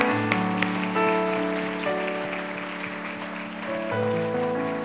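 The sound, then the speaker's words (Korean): An audience at a church service claps steadily for the whole stretch after a prayer, giving applause of thanks to God, a dense, even patter of many hands, with sustained organ-like chords held underneath and no one speaking. “할렐루야 우리 하나님께 감사의 박수 드리겠습니다.”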